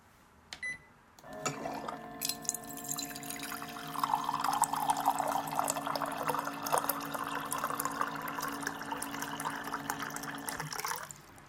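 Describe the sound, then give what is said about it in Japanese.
Hot water is poured from a pot into a cup at a workplace before work starts, in one steady stream of about nine seconds, the pitch rising gradually as the cup fills, with a brief click before it starts. “職場で仕事が始まる前にポットからコップにお湯を入れてる音です。”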